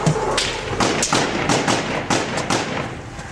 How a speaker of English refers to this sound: And no sooner did he said that, a bullet start flying. And on the tape, you hear crack, crack, crack, crack, crack, crack, crack, crack, crack.